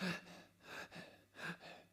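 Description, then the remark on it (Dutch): A person imitates the labored, gasping breathing they had while running: four or five ragged, breathy inhales and exhales in a steady rhythm, fairly loud, with no words spoken. “En als je zo kan ademhalen, kan je niet hardlopen.”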